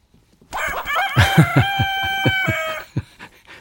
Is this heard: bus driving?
no